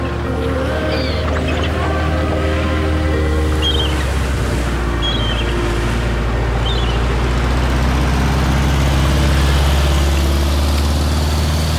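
A ferry engine drones loudly and steadily on the water in the evening, the last ferry from an island back to the mainland, with sun shining over the water; a deep throbbing hum with layered low tones that never lets up, with a faint wash of wind and water over it.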